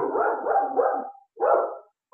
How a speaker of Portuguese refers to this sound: desculpa pelos cachorros, né? Eu acho que eles latiram durante a gente a gente estava conversando, me desculpe qualquer barulho que tenha vazado.